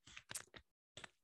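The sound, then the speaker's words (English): Quiet sipping of hot green tea: a cluster of short wet slurps, a brief pause, then another slurp and a small sharp click from the lips or cup. No one speaks. “taking a little sip of green tea here”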